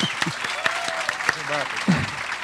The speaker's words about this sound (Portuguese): Vou pedir uma salva de palmas ao nosso professor. Obrigado, obrigado.